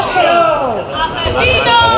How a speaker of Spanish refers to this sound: fueron recibidos con estos gritos por un pequeño grupo de vecinos de la localidad gaditana.